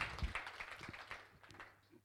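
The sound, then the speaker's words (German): An audience applauds, a quiet patter of many hands clapping irregularly that thins out toward the end. “Carmen und Lee, einen Applaus”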